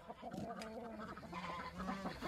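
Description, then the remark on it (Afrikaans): Many chickens in a neighbour's coop cluck and squawk together in a dense, overlapping chorus as a woman feeds them, fairly loud, with no pauses and no people talking. “Daar is heelwat hoenders in die bure se hok en die buurvrou is besig om hulle te voer.”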